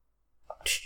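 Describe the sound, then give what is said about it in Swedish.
A voice briefly imitates a video game's chat whisper notification sound: a short, soft tonal blip followed by a breathy, hissing burst, fairly quiet, lasting under a second. “Och det känns verkligen som att, för det är också ett ljud när man blir viskad till som är lite så här,”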